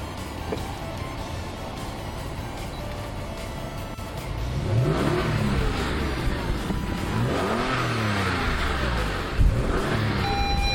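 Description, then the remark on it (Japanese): A Porsche engine revs up loudly from a steady low drone, its pitch sweeping up and down repeatedly as the car accelerates through gears, heard from inside the car with a window open while driving near the Kikuchi River around Yamaga, Japan, continuous with no talking. “じゃあ今から、えー、とエンジンをかけますんでポルシェのエンジンの音がどれだけ聞こえるのか室内では楽しみですね”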